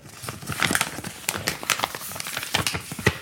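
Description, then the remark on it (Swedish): Continuous crinkling and rustling, like something papery or plastic being handled, with many quick crisp crackles spread across the whole stretch and no voices. “alltså så här, oh hör man hur de prasslar med någonting här borta.”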